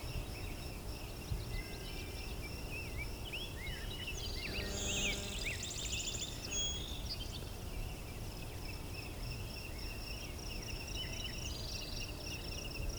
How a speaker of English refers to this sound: So yeah, it's got the core three that are singing here. Song sparrow, blue-winged warbler, and rosebreast grosbeak.